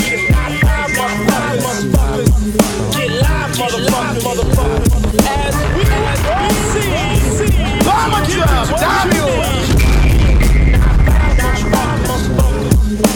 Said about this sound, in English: Damn, son, where'd you find this? Turn that mic up. Turn that mic up, yeah, the beat is knocking, leave that mic up though.